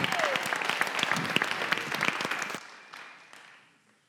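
An audience claps for a student about to close the night with his senior speech, a dense burst of many overlapping hand claps, steady for a couple of seconds before thinning out and fading to scattered claps.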